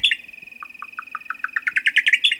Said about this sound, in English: And a cousin of the nighthawk, a buff collared nightjar, might begin to call.